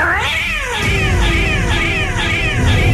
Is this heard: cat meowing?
yes